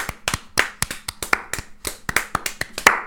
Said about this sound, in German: Einmal Applaus. Wir nicht, wo wir jetzt sind, ohne euch, Leute. Der Applaus ist für euch.